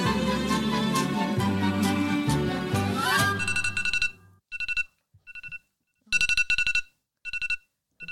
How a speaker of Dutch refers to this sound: Zet dat ding nou oh, uit. sorry, sorry. Ja, ik heb even de wekker gezet.